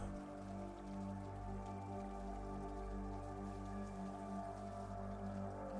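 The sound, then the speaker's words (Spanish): Soft, steady rain patters continuously with scattered drips, heard faintly beneath a sustained, humming musical drone; no one speaks. “Esta lluvia también te ayuda alabar cualquier cosa que tú hayas hecho a los demás.”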